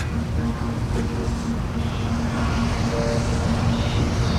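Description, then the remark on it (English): A large boat's engine drones steadily with a deep, constant rumble and a low humming tone, loud, with faint wind and water noise over it and no one speaking. “How lovely. Big boats.”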